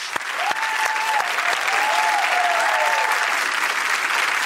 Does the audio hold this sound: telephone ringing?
no